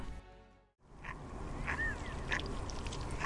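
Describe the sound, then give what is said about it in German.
Several ducks quack in short, scattered calls over a steady outdoor background hum, moderately loud, with no one speaking. “Außer dem Quaken der Enten?”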